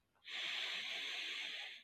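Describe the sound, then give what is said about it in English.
A single long, deep breath drawn in through the nose or mouth during a guided breathing exercise, a steady airy hiss that swells quickly and holds for about a second and a half, with no talking. “And breathing deeply in”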